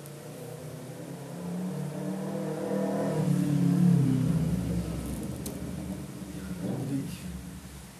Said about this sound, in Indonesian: jadi banyak yang punya ninja anjing berisik banget kayak tahun-tahun kemarin nggak ada yang punya ninja lewat belak balik gitu